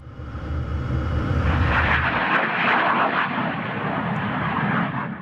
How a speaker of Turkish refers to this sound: Azerbaycan, Türkiye geniş kapsamlı ortak askeri tatbikatlar kapsamında düzenlenen Turas Kartalı 2020 tatbikatında F-16 savaş uçakları taktiksel uçuşlar gerçekleştirdi.